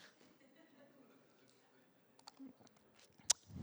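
speaker drinking water

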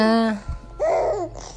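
baby babbling

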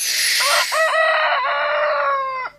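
rooster crowing

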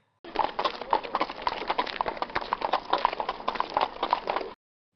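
horse hooves clip-clopping

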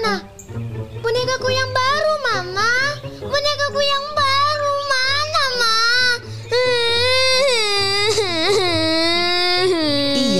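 child crying

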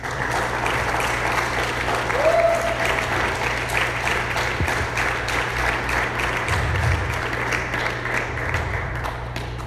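audience applauding

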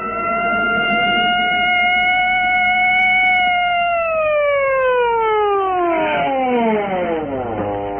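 police patrol car siren

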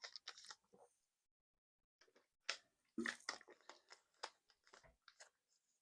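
drinking water

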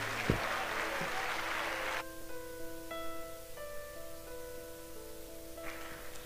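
audience applauding in church

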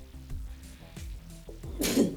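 sneeze

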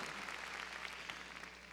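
audience clapping hands loudly

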